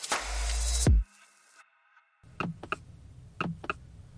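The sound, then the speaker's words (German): Short, crisp button-feedback blips from a car's touch panel and steering-wheel buttons, sounding with each key press, come in two quick clusters of two or three, clear, following a loud rumbling burst and a brief silence. “Das macht es übrigens auch bei jedem Tastendruck auf dem ja. Lenkrad, ne? Das ist wie so ein Tastenton beim Telefon.”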